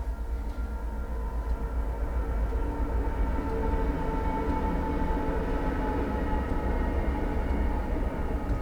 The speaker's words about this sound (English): It's funny, the, you probably hear the train going by. We live right next to the train tracks